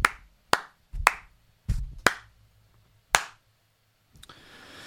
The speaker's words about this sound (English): Round of a fucking applause, Avon Somerset Police. Woo! Yeah, brilliant.